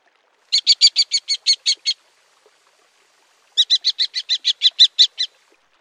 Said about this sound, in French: Une autre façon de reconnaître le faucon cresserelle, c'est par son cri.